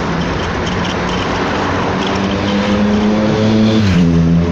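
Steady, loud traffic noise fills the scene, with engines humming and shifting pitch as vehicles move along a busy road, one engine rising and falling near the end.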